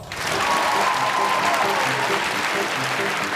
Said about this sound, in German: Also, sie müssen sich schon an die Spielregeln halten, sonst macht es keinen Spaß ein tosendes und wogelndes Beifallklatschgebraus. Jetzt Applaus!